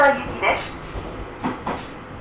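An Ohmi Railway local train running on the Takamiya–Hikone–Yokaichi route, with a steady low rumble and a few dull clunks from the wheels, plus a brief tonal sound at the start.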